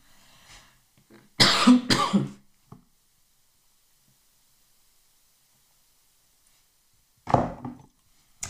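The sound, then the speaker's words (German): Two loud, harsh coughs in quick succession, then a long stretch of near silence before another rougher burst of coughing and throat clearing. No one speaks. “Das war nur ein klitzekleiner Frosch in meinem Halse.”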